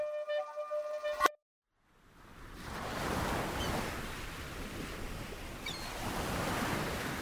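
After a brief tonal chime and a moment of silence, heavy ocean surf rises into a steady, roaring wash of breaking waves, swelling and receding in loud, rolling surges.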